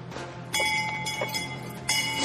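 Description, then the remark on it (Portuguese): A bell rings out twice, each strike loud with a bright, lingering metallic tone, over a steady murmur of background noise. “Tá procurando o sino.”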